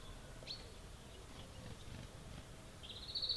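A bird flying into a garden gives a faint chirp briefly near the start, then a longer, higher trilling call rises toward the end, heard quietly over soft outdoor background noise.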